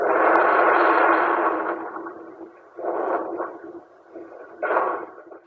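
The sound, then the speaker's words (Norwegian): A reconstructed sound of the violent undersea earthquake off the coast of Japan, as recreated by earthquake researchers: a dense, booming roar that surges loudly for about two seconds, fades, then swells twice more in shorter rumbling bursts, with no voices. “Dette er lyden av det voldsomme skjelvet i havet utenfor kysten av Japan, slik jordskjelvforskere har rekonstruert det.”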